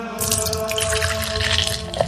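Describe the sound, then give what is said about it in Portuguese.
Water streams steadily into a drinking glass at a church for about two seconds, a continuous splashing pour with no one talking. “Pronto, já encheu o copo d'água, agora vamos lá.”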